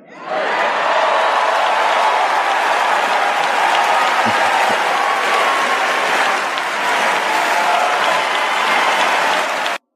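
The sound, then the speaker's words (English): A large crowd applauds a speech by LeBron James steadily for the full ten seconds, a dense, loud wash of clapping with a few scattered cheers and shouts mixed in. “As you guys can hear, the crowd loved that speech.”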